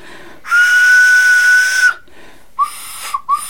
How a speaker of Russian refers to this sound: Это не просто игрушки, это игрушки-свистульки. Педагог, она возродила гончаровскую игрушку смоленскую.